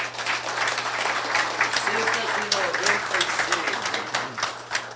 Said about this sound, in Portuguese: Eu trouxe uma torcida aí para puxar as palmas.